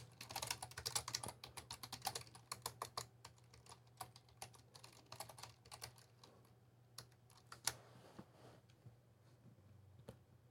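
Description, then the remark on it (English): Rapid clattering of someone typing a search for Section 230 on Trump's Twitter page on a computer keyboard, a dense burst of keystrokes that thins to scattered taps toward the end, over a steady low hum, with no one speaking. “Um, like let me let me do a search on on Trump's page.”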